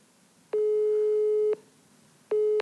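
A steady electronic telephone tone sounds while a call is being placed: one clear beep about a second long, a short pause, then a second beep that cuts off early. No voices.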